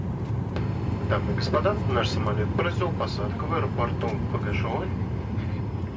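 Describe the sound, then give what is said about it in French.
A steady, loud engine drone fills the background like airplane cabin ambience in flight, aboard a plane flying from Moscow to Tomsk, with a person talking continuously over it. “Pour vous raconter les heures qui ont précédé l'empoisonnement d'Alexei Navalny, nos collègues de Moscou ont pris l'avion pour Tomsk.”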